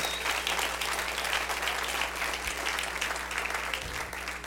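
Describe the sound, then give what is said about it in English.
Sustained applause to the Lord from a large gathered crowd, a dense steady patter of many hands clapping at once, moderately loud and continuous throughout with a low background hum beneath it. “Go ahead and clap to the Lord.”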